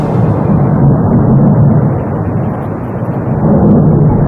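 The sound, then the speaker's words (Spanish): A deep, continuous roar rumbles steadily and loudly throughout, a volcano's eruption on La Palma churning with heavy low-end power and no pauses or voices. “En La Palma, el volcán continúa rugiendo, así suena en estos momentos.”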